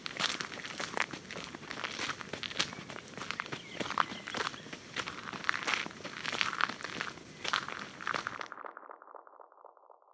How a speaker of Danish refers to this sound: Så nogle gange man går i den lyse bøgeskov, og så går man ind i sådan en mørk øh, grænskov, hvor det sådan er en helt anden lyd. Mm. Det er jo det også, ikke? Sådan dæmpet lyd, når man går i nåleskov.